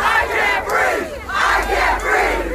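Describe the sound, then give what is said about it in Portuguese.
A large protest crowd in the United States chants the slogan "I can't breathe!" in unison over the death of George Floyd, loud and rhythmic, the same phrase rising and falling about four times in a steady cadence with no pause between repetitions. “O Eu Não Consigo Respirar virou grito de guerra para os manifestantes que, revoltados com a morte de mais um homem negro desarmado pela força policial americana, incendiaram a delegacia na cidade.”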